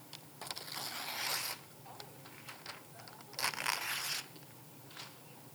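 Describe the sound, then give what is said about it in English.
Paper rustles and crinkles in two main bursts of handling, separated by a quieter stretch with scattered small crackles. The sound is soft, with no talking. “Y'all can put the paper down.”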